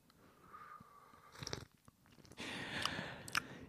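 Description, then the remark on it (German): Loud slurping as someone sips hot spiced tea with pepper in it, with a few airy sucking bursts and a longer noisy slurp near the end. No talking. “Hast du schon geschlürft?”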